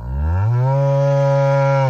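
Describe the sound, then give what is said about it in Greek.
A cow lets out a single long, loud moo that rises quickly and holds a steady droning tone for about two seconds, with no other sounds. “Όταν παίρνετε η Αγελάδα.”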